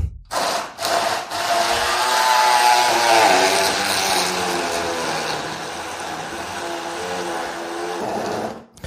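An electric blender whirs loudly and steadily for several seconds, its motor pitch wavering slightly as contents churn, after a couple of brief starts at the beginning; no talking.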